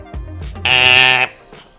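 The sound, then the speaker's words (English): A door buzzer at the locked entrance of the Grey Rock Security building, a four-story building with black glass windows, is pressed and sounds once, a harsh, steady electric buzz lasting about half a second at a flat pitch, preceded and followed by a few faint, indistinct noises. “It's locked, but there is a buzzer nearby.”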